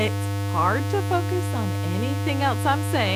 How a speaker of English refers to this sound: Imagine this. Imagine that you're living with a constant buzzing noise. It might sound something like this, okay?